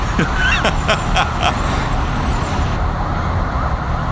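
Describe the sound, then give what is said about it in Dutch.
Busy city street traffic on Canal Street in New York rumbles steadily and loudly throughout, with a quick series of sharp bursts near the start and faint voices mixed into the roar. “we zitten wel aan een vrij drukke straat.”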